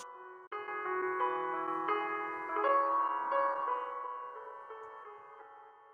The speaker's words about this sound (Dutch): De muziek is leuk en kalm.